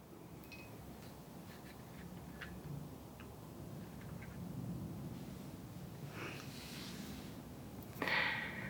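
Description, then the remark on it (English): A couple of soft, breathy blowing exhales of a wind breathing exercise, one around the middle and a stronger gust near the end, over a quiet, faintly ticking background with no talking. “Friends, we just did a wind breathing exercise”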